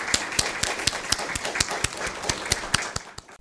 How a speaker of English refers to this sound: So let's close just with a, a, a round of applause to our panelists and to the NGOs working in Afghanistan.